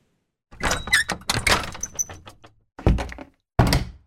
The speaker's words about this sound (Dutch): Hij sluit de deur in de poort achter mij en schuift de zware metalen grendel ervoor.